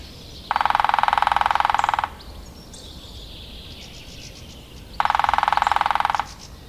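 A lesser spotted woodpecker, a very small woodpecker, gives two loud, rapid bursts of sharp repeated notes, each about a second and a half long, separated by a pause with faint bird calls in the background.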